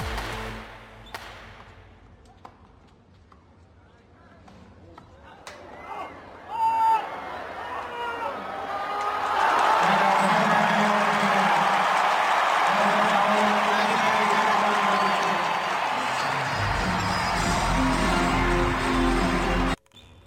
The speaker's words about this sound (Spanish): Esto que acabamos de escuchar es el último punto en el en el noveno game no, en el octavo game del partido de The Greatest Match entre Alexander Zverev y Roger Federer, con el que el helvético se hizo con el triunfo acá en México.